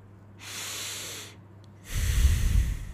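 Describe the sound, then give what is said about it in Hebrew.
A long, deep breath of cool desert air in January drawn in through the nose, a soft airy rush lasting about a second, followed after a short pause by a second, heavier breath with more low rumble. “אותו אוויר שכשלוקחים נשימה, אז מרגישים קור נעים בפנים, אוויר כזה של פולין, אוויר כזה של מדבר, של קר.”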